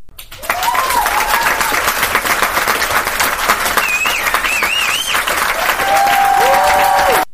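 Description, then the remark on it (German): An inserted digital applause sound effect: a steady burst of crowd applause, dense clapping that holds at an even level for about seven seconds, with a few faint cheering whistles rising over it. “Warte mal, ich, Pause machen für digitales Klatschen einfügen.”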